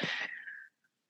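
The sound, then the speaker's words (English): A single sharp sneeze during a yoga class, a sudden breathy burst that trails off into a fading high-pitched whistle of air, followed by a tiny faint click and silence. “bless you.”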